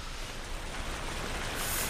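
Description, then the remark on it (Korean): A steady, unbroken rush of water running or falling, a dense hiss that holds at an even, fairly loud level for the full two seconds with no voices. “물소리지?”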